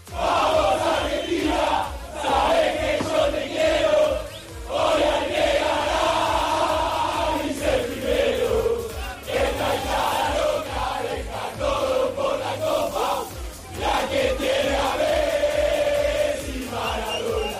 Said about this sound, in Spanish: La que tiene a Messi Maradona se está instalando ya como la canción oficial de los argentinos en esta Copa del Mundo.